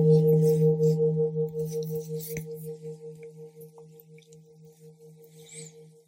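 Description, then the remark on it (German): A single gong strike, the first gong, rings out, a loud, low, humming tone with a higher overtone that wavers and pulses as it slowly fades over several seconds, with no voices. “Beim ersten Gong speichere ich.”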